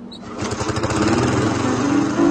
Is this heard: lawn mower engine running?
yes